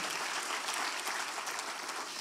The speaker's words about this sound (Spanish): Le damos un aplauso a Él.